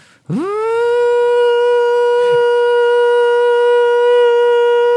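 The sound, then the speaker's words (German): A voice imitates a vacuum cleaner with one long, steady monotone drone. It swoops up quickly at the start, then holds at a constant pitch and loudness for several seconds. “Eins, eins meiner Geräusche ist der Staubsauger. Ich liebe Staubsaugergeräusche.”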